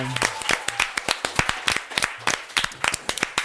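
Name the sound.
applause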